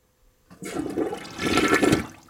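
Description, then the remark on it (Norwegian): A toilet flushes once, a loud rushing whoosh of water that starts abruptly, swells and churns for a couple of seconds, then begins to drain away. No voices are heard. “Ned i røret med en domble ut.”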